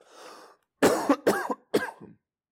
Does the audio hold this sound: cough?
yes